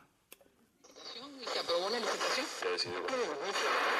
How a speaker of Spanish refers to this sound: Pero este radiecito, mira, yo lo prendo.